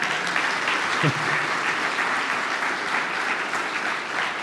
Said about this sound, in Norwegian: Jeg må si jeg blir alltid så imponert når folk kan lese det som står, det som står der. Eh, Jeg syns de fortjener en klapp.